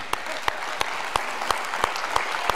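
An audience in New England applauds at the end of a song at a Sunday service in a dense, steady wash of clapping, with a few sharp, louder claps punching through at a regular beat, roughly three per second.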